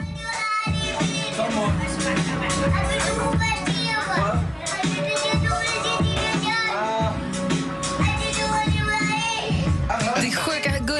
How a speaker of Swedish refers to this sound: han är liten så han pratar liksom inte språk ännu. Men som, han fullkomligen rappar.